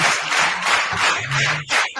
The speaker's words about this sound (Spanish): dándole también los, eh, el aplauso.